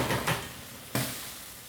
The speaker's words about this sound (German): So, dann nehmen wir, nehmen wir mal hier den Deckel vom Topf.